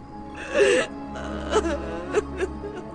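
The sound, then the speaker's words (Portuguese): A girl cries softly, whimpering in short bursts amid the gasping, panting breaths of two people, fairly quiet, with no words spoken. “O silêncio, cortado aqui e ali pelo dueto de respirações arfantes e o choro de Marita, foi rompido, enfim.”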